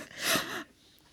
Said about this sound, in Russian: Как я выдыхаю, как будто сейчас сдохну, да? Это так весь месяц дышала, когда работала в агентстве.